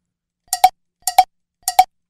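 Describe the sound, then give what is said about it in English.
A bell rings in three evenly spaced pairs of quick strikes, ding-ding, six bright metallic clangs in all with a clear mid-pitched tone that decays quickly. No one speaks. “So let's start with three bells, Charge.”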